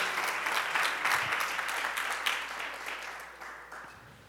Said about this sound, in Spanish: Otro aplauso a los hermanos. Muy buenos.